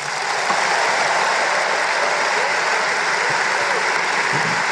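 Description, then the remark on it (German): Steady audience applause, a dense wash of clapping that stays at an even level throughout without cheers or whistles, sounding polite rather than enthusiastic. It is applause at the end of a speech, with hardly any cheering and no one standing up. “Völlig, völlig daneben inhaltlich und entsprechend war dann auch der Applaus, da hat man schon gesehen, ah, okay.”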